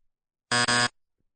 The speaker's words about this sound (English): Second in targets. Come on, hit the buzzer.